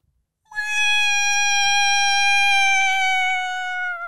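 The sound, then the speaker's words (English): A voice imitates an eerie mermaid call: one long, loud, wailing note held for several seconds, sliding slowly downward in pitch before cutting off, with no talking around it. “Like the look up like noises, like mermaid noises, and like there's like these dudes in ships in the middle of the ocean, like the middle of the sea, and they'll just like hear like in the distance, just like”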